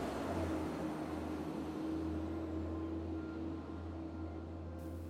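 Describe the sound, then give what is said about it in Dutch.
A steady, deep engine rumble with a broad wash of road noise as a truck drives past outside, holding fairly even for several seconds with no voices. “Oh, er komt een vrachtwagen voorbij hier.”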